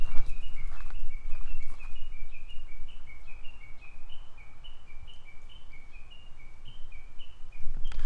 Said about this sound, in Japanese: 鳥が鳴いてるけど、今のだと、ちょっと手上に伸ばしてみたりしたけど、これじゃ入んないよね、あんまり。